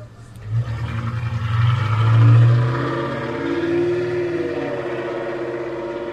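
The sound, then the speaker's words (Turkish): A family car engine revs up, its low rumble swelling to a loud peak around two seconds before settling into a steady, slightly rising drone, with no talking. “Motor sesini duydun mu?”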